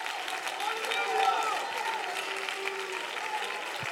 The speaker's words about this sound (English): If you believe that, you ought to clap your hands and you ought to lift your voice.